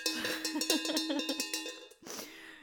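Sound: cowbell being rung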